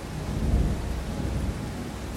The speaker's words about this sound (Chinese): 然后在录音的现在，刚刚好也是下大雨，然后刚刚一阵的雷声、闪电。其实我很想要站在靠窗的地方录音。试试看可不可以把雷声，这个雷声也录起来。